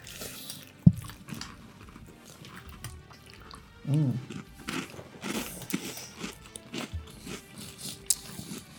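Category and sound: food or drink, chewing crunchy breakfast cereal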